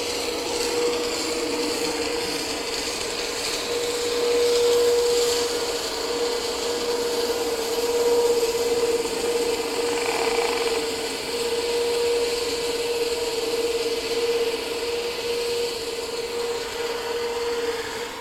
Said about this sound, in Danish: Nu begynder vi at kunne høre skibet mere.